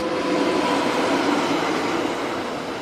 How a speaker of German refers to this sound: Seither rollt der Verkehr über die Albula-Bahn, Thusis-St. Moritz, knapp 62 Kilometer, fast 1000 Höhenmeter, 144 Brücken, eine Meisterleistung der Ingenieure.